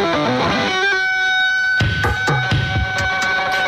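A snippet of a pop song opening with a wailing, heavily distorted electric guitar line, followed by sharp drum-machine hits kicking in partway through; loud and upfront, with no talking.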